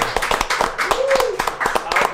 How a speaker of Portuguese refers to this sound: Uma salva de palmas.